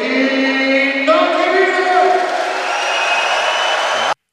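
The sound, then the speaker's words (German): A large arena crowd on the opposite grandstand cheers and chants before the start of a game, a steady, loud, echoing roar of many voices that holds for about four seconds before cutting off abruptly. “Jetzt gibt es ja immer diesen Wettkampf vor Spielbeginn. Also welche Tribüne ist denn lauter? Jetzt wandert er rüber auf die Gegentribüne.”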